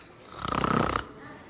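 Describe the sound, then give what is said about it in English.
A single loud, raspy snore from a sleeping person rises and fades over about half a second, buzzy, with a quiet background before and after. “I think I hear him sleeping.”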